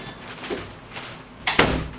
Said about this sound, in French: Attends, on va fermer la porte deux secondes.